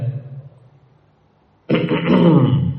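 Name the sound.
throat clearing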